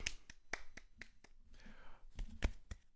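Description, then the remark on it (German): Sparse applause from a few people for the Kobe Award going to Damian Lillard: a dozen or so sharp, irregular claps over three seconds, moderately loud, with a faint murmur of voices underneath. “Es ist der Kobe Award, der an Damian Lillard geht. Applaus. Applaus.”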